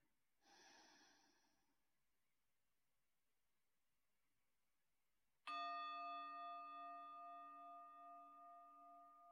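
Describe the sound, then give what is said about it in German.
A single clear strike of a meditation bell rings out and hums on, slowly fading over several seconds, preceded by a soft, audible breath. “Auch wenn die Glocke läutet, bleibe bei deinem inneren Kind.”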